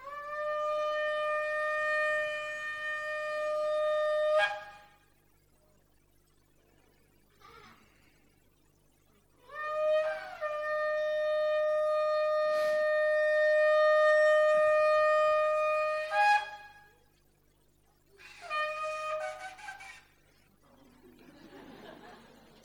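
A shofar, a ram's horn, sounds three loud, sustained blasts with nothing else playing: two long steady notes, each rising at the start, separated by pauses, then a shorter wavering blast.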